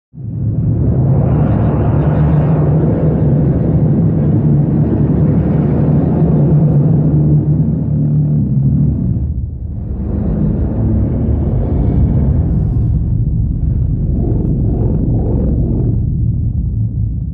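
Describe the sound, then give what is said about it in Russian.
Sonified activity of the muscles of a right hand, recorded at a CNRS science laboratory in France: a dense, low droning rumble that swells and wavers, dips briefly about midway, then returns with pulsing texture. It is loud, with no talking. “Так звучат мышцы кисти моей правой руки.”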